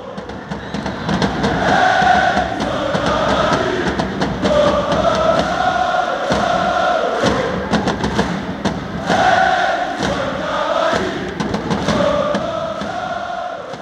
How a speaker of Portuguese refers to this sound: E, e aí, a torcida cantando pro Cavani, como sempre canta, várias bandeiras. Vamos dar um sobe-som então aqui pra música da, da arquibancada dos Ultras do PSG para o uruguaio Cavani quebrando esse recorde.